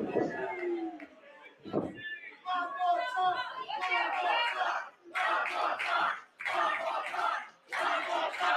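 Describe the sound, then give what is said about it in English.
An arena crowd at a women's wrestling match, the RCW Women's Championship in Australia, roars and cheers in loud, repeated surges, each swell of shouting rising and briefly dipping before the next wave, with voices mixed into the din. “This crowd firmly behind the powerhouse.”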